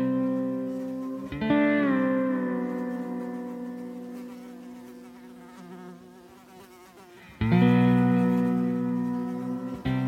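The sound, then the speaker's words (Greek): A loud insect drone of flies buzzing in the narrow small garden of a house on Kydathinaion Street in Athens, on a morning during an alarm, swelling in twice with a sudden start and fading gradually after each, its thin whining hum filling an otherwise absolutely quiet space. “θυμήθηκα ένα πρωινό συναγερμού που βούιζαν οι μύγες στο στενό μακροπεριβολάκι του σπιτιού μου στην Κιταθηναίων, μέσα σε μια απόλυτη ησυχία.”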